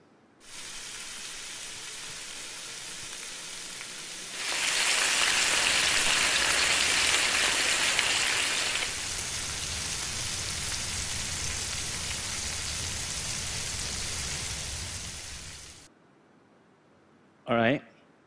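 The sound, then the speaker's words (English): Bacon sizzles and crackles in a pan with a steady, dense hiss that swells louder for a few seconds midway, then settles before cutting off, followed by a brief sharp burst. “I'm going to play three videos of a rainy day, but I've replaced the audio of one of the videos, and instead of the sound of rain, I've added the sound of bacon frying.”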